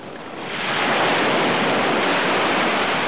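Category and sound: sound effect, stormy sea waves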